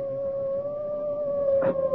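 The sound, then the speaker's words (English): A hound howls on a pitch-black moor at night in one long, steady, mournful note that holds without a break, with no voices over it. “That was the cry of a hound.”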